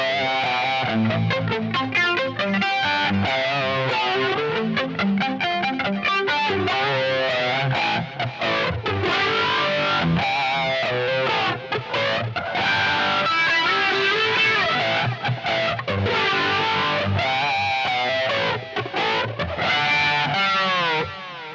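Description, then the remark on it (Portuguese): An electric guitar plays a fast, continuous classic rock riff in 1980s style, drenched in delay, chorus, flanger and reverb all at once, with swirling, sweeping tones. It's loud, with no talking for about twenty seconds. “Você vê que já tem delay, é, coros, flange, reverb, tudo junto, né?”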